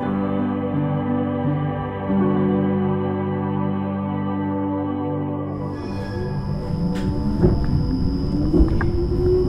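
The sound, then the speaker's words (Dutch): Steady low motor hum and rumble inside a half-full tram moving through the centre of Amsterdam, with rising whines as it accelerates and faint clattering and rattling over the tracks toward the end. “Dit is een klein beetje gênant opnemen, want ik zit op een ehm, halfvolle tram, of moet ik zeggen tram, in het centrum van Amsterdam.”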